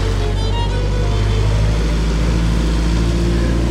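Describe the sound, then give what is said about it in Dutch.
A shovel-type loader with a vibrating plate compactor mounted on its fork drives past on a square, its loud, steady low engine drone filling the whole stretch with a dense mechanical hum. “ding met, eh, met zo'n trilplaatmachine voor op de vork.”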